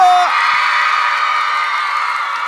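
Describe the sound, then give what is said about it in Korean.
A loud, dense crowd cheering and screaming sound effect, played on the radio show Mr. Radio after the hosts ask listeners to scream: a sustained roar of many voices that starts abruptly after a brief tone and holds steady throughout. “오늘도 듣고 계시죠? 듣고 계시다면 소리 질러!”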